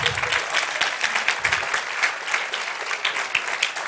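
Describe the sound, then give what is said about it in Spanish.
Loud, sustained applause from an audience, a dense wash of many hands clapping steadily for about four seconds without pause. “No, si le va a aplaudir, apláudale bien fuerte.”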